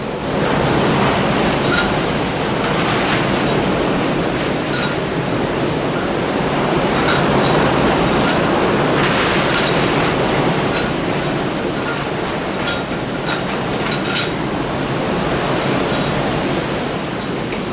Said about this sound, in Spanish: y tengan una idea de cómo es el paso de un huracán de una manera sonora, como lo estoy escuchando yo ahora mismo aquí en Puerto Rico, en San Juan de Puerto Rico.